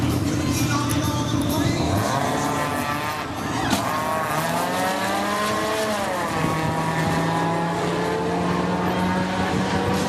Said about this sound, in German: wenn du so unterwegs bist wie ein kleine Smart und du hast so einen Motor drin,